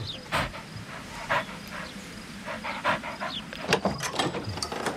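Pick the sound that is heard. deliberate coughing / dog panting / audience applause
dog panting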